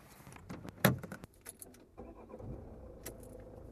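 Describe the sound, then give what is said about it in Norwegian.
Keys jangle and clink, then a steady low engine hum settles in, the muffled drone of riding inside a car on the way to a summer camp. No one speaks. “I bilen på vei til sommerleiren forteller Marte hva som fremdeles kan gjøre henne redd i hverdagen”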